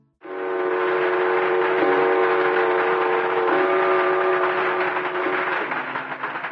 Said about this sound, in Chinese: 刚才的片段呢是绕境当中的起驾典礼。所谓起驾呢，就是把神像请出来，然后轿子要开始走了，这很庄重嘛，所以有一些仪式。